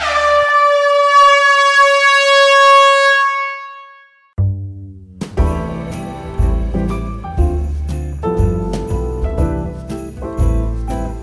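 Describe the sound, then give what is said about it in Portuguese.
A single loud, sustained horn blast rings out for about four seconds and cuts off, followed by the start of upbeat music with bass and percussion. “Pode sua buzina!”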